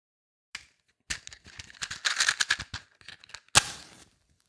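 A crackling campfire pops and snaps irregularly, building to a dense flurry of sharp crackles before one loud pop near the end, fairly loud, with no voices.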